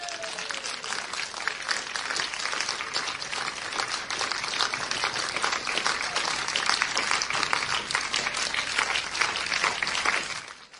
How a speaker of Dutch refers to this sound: Ehm, alle dope, dopelingen. Ehm, jullie gaan een eh, applaus krijgen van de mensen als jullie naar voren komen. Ja, toch?